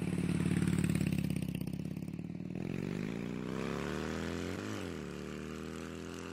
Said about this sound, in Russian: После этого инцидента, если он действительно был, Ади купила своему сыну шумный мотоцикл.